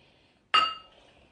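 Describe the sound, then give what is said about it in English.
A single bright clink of glasses touching in a toast, sharp and ringing with a short shimmering decay, against a quiet background with no talking. “Cheers.”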